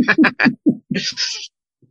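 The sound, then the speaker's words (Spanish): A pet cat named Iris vocalizes in a quick run of short chirping calls, then gives a brief breathy, hiss-like sound before falling quiet. “Bueno, está hablando con su gato.”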